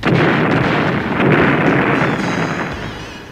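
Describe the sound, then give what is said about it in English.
A loud, sustained roar of explosions and heavy gunfire as troops blow the robot Number Five to pieces, dense and booming with crackling bursts, rumbling on for a few seconds before slowly fading. No voices. “Number five is blown to pieces by heavy gunfire.”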